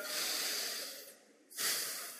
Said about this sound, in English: So take a breath.